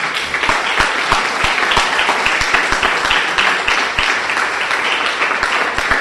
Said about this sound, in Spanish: Eso se merece aplauso. ¿Ah? Un aplauso.